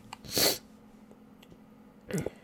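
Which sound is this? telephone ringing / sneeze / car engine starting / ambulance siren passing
sneeze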